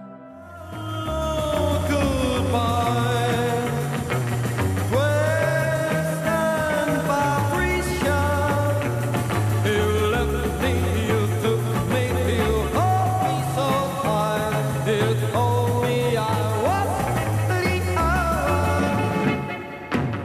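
A 1960s twist pop song plays loud and steady throughout, with a bouncing, stepping bass line under bright full-band instrumentation and a driving dance beat.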